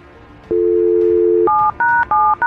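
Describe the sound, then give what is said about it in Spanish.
A phone number is dialed to call a friend: a steady low dial tone hums for about a second, then a quick run of higher two-pitch keypad beeps follows, fairly loud and without voices. “Ahí está marcando, ahí está marcando”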